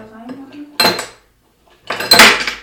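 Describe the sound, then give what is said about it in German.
Three ice cubes clatter into a glass in two bright, rattling bursts separated by a short pause, each ending in a ringing clink. No one speaks. “drei Eiswürfel reichen, glaube ich, erstmal.”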